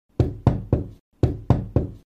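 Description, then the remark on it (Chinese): Loud, forceful banging on a window in two bursts of three heavy thumps each, separated by a short pause, with no voices. “于是他松了口气，只是还没等他坐回椅子上，窗户又传来了激烈的拍打声。”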